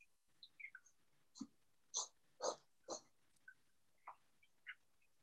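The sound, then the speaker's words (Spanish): An asthmatic cat in a wheezy coughing fit: a run of four harsh, snorting hacks close together, surrounded by smaller squeaky gasps and wheezes, with no talking. “gato asmático teniendo un ataque de tos.”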